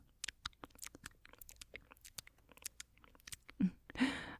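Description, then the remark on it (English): Close, intimate mouth sounds: a run of soft wet clicks and smacks, then a couple of louder, breathy kissing or lip noises near the end, very near the ear. “binaural mouth sounds/affection”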